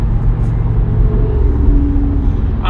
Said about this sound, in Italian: sto vedendo un sacco di motociclisti, ne è passato giusto uno adesso, ma non motociclisti della, non motociclisti della domenica